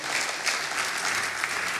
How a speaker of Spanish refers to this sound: Un aplauso al Señor en esta mañana.